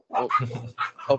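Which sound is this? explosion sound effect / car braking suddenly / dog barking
dog barking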